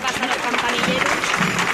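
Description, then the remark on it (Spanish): A crowd applauds during a procession of the Virgin of the Rosary along a long, wide avenue lined with apartment towers and decorated balconies, a steady, dense patter of many hands clapping at once, fairly loud, with a murmur of voices mixed into the clapping. “Bueno, más aplausos.”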